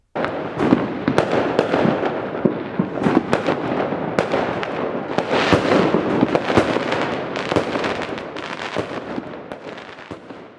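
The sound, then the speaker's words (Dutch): Fireworks, launched into the air by exploding gunpowder, burst in a dense, continuous barrage of loud bangs and crackles over about ten seconds, with many overlapping explosions, some sharp, others rumbling and layered, and no talking. “Door de kracht van de ontploffing van het buskruid vliegt het vuurwerk de lucht in.”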